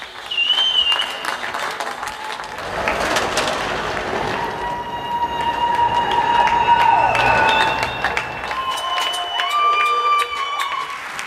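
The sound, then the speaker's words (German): A crowd claps for care workers in March 2020, steadily for the full stretch, a dense, sustained wash of applause with scattered cheers and high whistles rising above it. “Erinnern Sie sich noch vor einem Jahr im März 2020 an den Applaus?”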